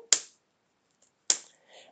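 Two sharp rubber snaps about a second apart, each a bright slap with a quick decay, as an orange rubber-plastic wristband with writing on it is flicked against an arm; a faint rustle follows the second.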